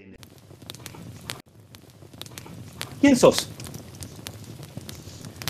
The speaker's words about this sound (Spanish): El fuego convoca, nos reúne y se cruzan las historias. Crepitar. Un leño enciende a otro.